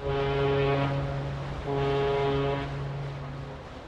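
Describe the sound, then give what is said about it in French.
A deep ship's horn blows in two long, loud blasts, the second fading out slowly, as a ship arrives in Saigon in early September 1921, with no one speaking. “il arrive à Saïgon par bateau, plein d'espoir et d'ambition.”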